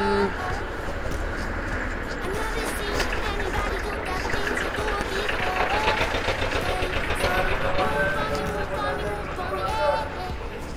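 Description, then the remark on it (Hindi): A large vehicle arrives, its engine rumbling steadily throughout, a continuous low drone amid a busy, noisy scene with people talking in the background. “गाड़ी आ गई है बड़ी सी”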